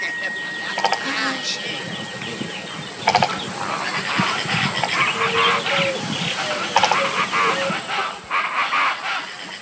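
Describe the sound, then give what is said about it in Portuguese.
Harsh, croaking calls of a jabiru stork (tuiuiu), a large bird, over a dense outdoor bird chorus, with a few louder bursts at intervals and constant rustling background noise. “Este é o tuiuiu. O tuiuiu é um pássaro grande tem um corpo robusto, um bico grosso e afilado na ponta.”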